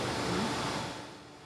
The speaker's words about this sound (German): So, jetzt stehen wir schon mal vor unserer Schalltür. Jetzt haben wir noch den, den Lärm, der sozusagen von der Technik produziert wird.